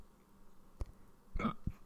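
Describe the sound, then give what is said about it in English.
A quiet hiccup from a person whose hiccups have returned: a soft click followed by a short voiced gulp and a faint low thump, with no talking. “Oh, the hiccups are back.”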